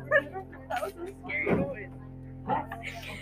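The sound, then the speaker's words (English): A person's voice imitates the howl of Pudgy, a very old chihuahua on TikTok, giving a few short, strained "ow ow" yelps close to the microphone, separated by brief pauses, with a steady low hum underneath. “We were supposed to say ow ow and get like really close to the microphone.”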